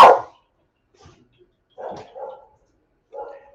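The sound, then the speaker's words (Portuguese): Dogs bark at the neighbors' dogs across the street in short separated bursts: a loud bark at the start, then a pair of barks and one more, with quiet gaps between them. “Os meus cachorros têm, começaram uma uma discussão de relação com os da frente.”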